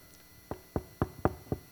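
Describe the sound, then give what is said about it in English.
Five soft knocks on a door in a steady, even rhythm, fairly quiet, with no voices. “I'm gently knocking.”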